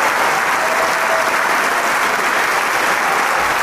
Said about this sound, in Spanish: es evidente, el público le agradece con el aplauso cálido y empático hacia él.